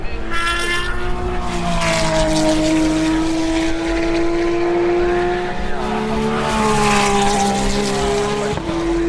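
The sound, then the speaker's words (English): A Porsche race car roars past at the Le Mans race. Its loud, buzzing engine note holds steady with gentle rises and dips in pitch, then shifts abruptly just before the end. “followed by a uh, Ferrari singing away. Here's a Porsche.”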